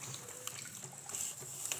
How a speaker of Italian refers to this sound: Dopo un po' sentì il rumore dell'acqua di uno stagno.